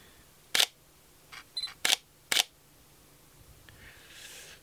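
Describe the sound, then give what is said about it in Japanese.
Three crisp mirrorless camera shutter clicks from a newly bought, very light camera held in one hand ring out at irregular intervals, with a couple of softer mechanical ticks between them, followed by quiet room tone and no talking. “まずですねとっても軽いもう今片手でねマイク持って片手でカメラ持ってますけどめっちゃ軽いですね思った以上に軽い”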